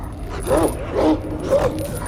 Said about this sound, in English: There's a huge dog that leaps towards me. I recoil, just out of his jaw's reach. The sentinel yanks on the rope around the dog's neck that pulls him back to his side.